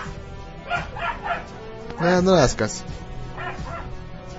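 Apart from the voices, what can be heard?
dog barking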